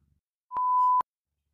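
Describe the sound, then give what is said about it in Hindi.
A single steady electronic beep as the other person hangs up a phone call, lasting about half a second with a faint click at each end, alone in otherwise silent surroundings. “बस जब भी फ़ोन करती थी वो इतना कह के रख देता था”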